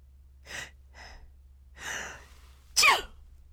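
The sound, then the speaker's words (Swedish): A person imitates a sneeze with a few short breathy inhales building up, ending in one sharp, sudden burst; fairly quiet overall, with no talking. “Kanske var lite musaktig, men i alla fall det var en nysning.”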